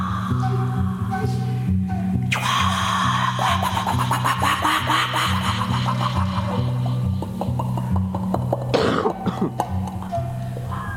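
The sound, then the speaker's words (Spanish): Strange, sustained vocal throat sounds and cough-like bursts made by a human throat on an experimental record, layered over a low droning hum, loud, with rasping textures and sudden harsh outbursts near the end; no words are spoken. “Pero hacía unos, sonidos que, parecía mentira que los hiciese con la sí, garganta.”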